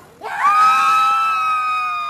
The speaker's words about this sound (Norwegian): Skal vi skrike?